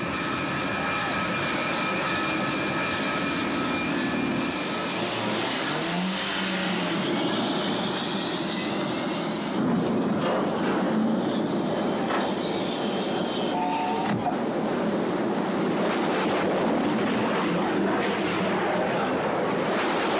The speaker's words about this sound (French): C'est la pub Citroën 1988. Et je tiens à préciser, c'est une publicité sans trucage.